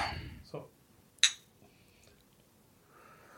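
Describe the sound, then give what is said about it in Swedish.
A single bright clink of glasses touching in a toast, sharp with a brief ringing tail, set among soft rustling and breathing. “Här, skål då. Eh, skål.”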